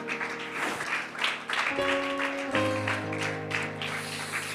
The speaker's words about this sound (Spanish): Colóquese de pie y si ese aplauso es para sus Señor, bríndeselo con más fuerza en esta hora y con todo su corazón. Aleluya.